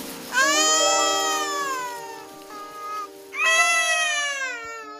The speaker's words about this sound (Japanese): そこで2人が見つけたのは死後数日経っている女性の亡骸とその横で元気に泣いている赤子の姿であった